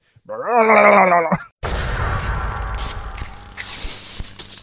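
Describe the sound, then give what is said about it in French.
A voice imitates the gurgling cry of a Murloc creature in one loud, warbling burst of about a second, then stops abruptly before a dense, noisy wash of sound takes over. “je sais très bien imiter le Murloc aussi, si jamais un jour tu t'endors un moment.”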